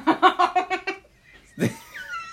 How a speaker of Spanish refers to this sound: Insoportable, ese perro insoportable. Te queremos, Candy. Te queremos, Candy.